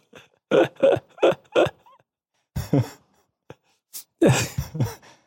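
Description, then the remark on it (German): A run of loud burps: four short ones in quick succession, a pause, then a longer croaking belch and a final drawn-out one, with no talking. “du merkst aber, dass das Rülpsen dich selber quasi aus dem Konzept bringt”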